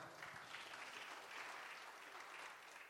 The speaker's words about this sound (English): Give him a hand clap.